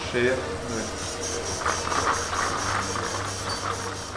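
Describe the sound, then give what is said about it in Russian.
A surgical drill in an operating room whirs steadily as a surgeon bores a 9-millimetre channel through a tibia to pass a cruciate ligament graft into the knee joint, its low motor hum running under a rapid, rhythmic grinding chatter that holds at a fairly loud, even level throughout. “Вы слышите звуки особой дрели, при помощи которой хирург создал 9-миллиметровый канал в моей большеберцовой кости”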